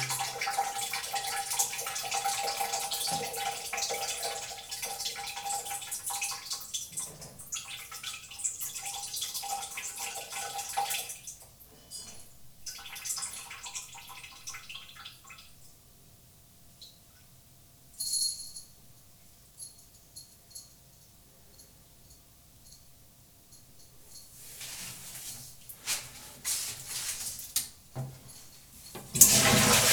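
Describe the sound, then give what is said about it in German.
A toilet flushes with a loud, hissing rush of water lasting around ten seconds, then settles into quieter running water as the tank refills, swelling again toward the end. No one speaks. “Ich befinde mich jetzt auf dem Klo. Ihr hört das.”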